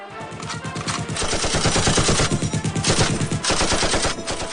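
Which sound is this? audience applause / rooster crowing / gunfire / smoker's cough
gunfire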